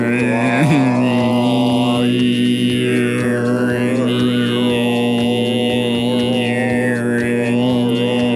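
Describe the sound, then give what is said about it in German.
A single voice holds a steady low drone while a whistling overtone glides up and down above it, an amateur try at throat singing, loud and unbroken throughout. “Ja, aber da, da ja, so man schon ein paar ja, Obertöne ja. gehört.”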